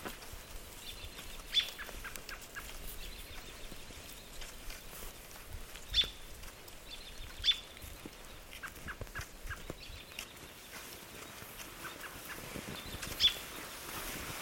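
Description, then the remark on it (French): Birds call in the background, a few short, high chirps scattered every few seconds over a steady outdoor hiss, with no one speaking. “Je crois qu'il y a les oiseaux qui rajoutent quelque chose derrière toi.”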